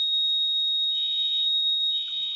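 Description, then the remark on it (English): A loud, steady high-pitched alarm tone from a building's sprinkler system rings continuously with no break, a shrill electronic whine with a faint buzzy texture. “I think it's a sprinkler system in my in my building.”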